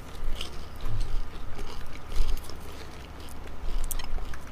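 Crunching and chewing of popcorn lollies with a very tough outer shell of toffee, with irregular crackly bites and grinding over a few seconds, loud, no talking.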